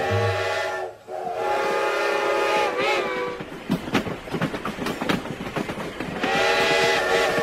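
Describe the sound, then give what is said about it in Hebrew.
A train whistle blows long and loud, then the wheels start a quickening clickety-clack as the train pulls away, and the whistle sounds again at the end. No one speaks. “לפני רגע עמדה פה רכבת שלמה, ופתאום הרכבת כולה נעלמה.”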